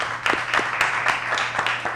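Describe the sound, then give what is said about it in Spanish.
An audience applauds, a dense, steady patter of many hands clapping with a few sharper individual claps standing out, moderately loud and continuous throughout. “Le damos un aplauso.”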